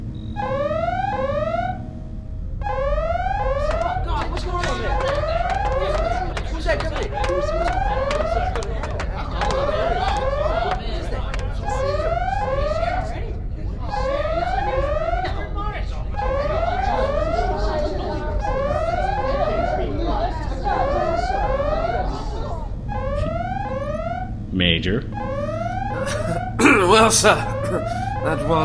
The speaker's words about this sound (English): Commander? Yes, Captain. Sound General Quarters.